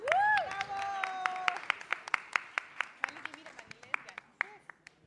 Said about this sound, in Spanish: De CUR, un aplauso para De CUR.